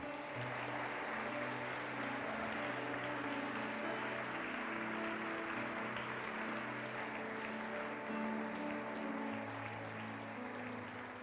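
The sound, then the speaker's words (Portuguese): A church audience applauds the Lord steadily for the whole stretch, a dense, even clatter of many hands, with sustained keyboard chords droning underneath. “A igreja pode aplaudir o Senhor mais uma vez.”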